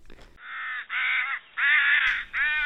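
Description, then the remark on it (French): A crow caws four times in a steady series, harsh and loud, each call lasting about half a second with short gaps between. “La corneille est un oiseau noir, mais elle peut être aussi grise.”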